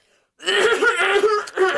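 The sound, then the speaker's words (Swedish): A voice imitates the deep, hacking cough of a sick woman passer-by wearing a scarf over her nose and sunglasses: one long, rough, raspy voiced burst followed by a short second one, loud and with no other talk around it. “Jag har inte hört en sån djup hosta i mitt liv.”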